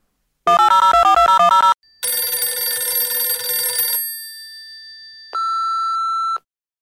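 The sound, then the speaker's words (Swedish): A telephone rings for an incoming call to a call-in show: a burst of rapidly alternating electronic tones, then a buzzy, harmonically rich ring that fades, and finally a steady high beep. No one speaks. “Eh, Eh, hur som helst, Lennart har ringt in igen och han har lite nya tankar även idag.”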